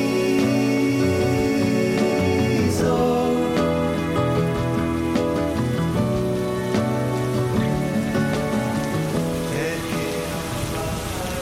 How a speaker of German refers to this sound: warmer Sommerregen hören wir da noch ein bisschen zu. Ich kann das irgendwie gleich spüren, sommerlich schön